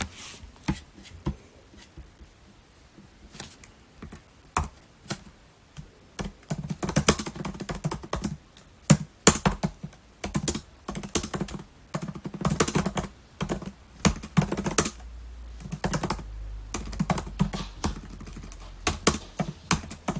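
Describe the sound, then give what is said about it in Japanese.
Rapid, uneven keyboard typing as someone writes an article for note, a run of crisp clicks in bursts with brief pauses, plus a low rumble underneath toward the end; no voices. “今僕はですねああコメントに書いてるか本音とは何かというテーマでノートの記事を書いてるところですね”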